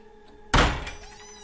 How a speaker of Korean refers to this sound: 이런 소리가 들립니다. 뭔가 싶어 후다닥 뛰쳐나왔는데 안문이 아, 열려 맞바람을 맞아 마구 날뛰는 연마냥 퍼덕이고 있었습니다. 으이씨, 좀 무서웠습니다. 이거 분명히 아까 맨 처음 왔을 때 걸쇠에 걸려 단단히 잠겨 있었는데.